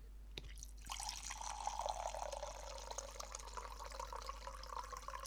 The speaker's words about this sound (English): But don't uh, hear the sorry, don't want to hear the the ASMR of the box of wine being poured. Okay, it's gonna sound like a drunk man peeing.